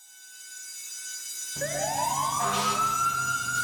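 A fire engine siren begins with a steady tone, then a rising wail sweeps up as a low engine rumble kicks in, growing loud and sustained over the roar.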